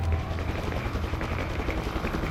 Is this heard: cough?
no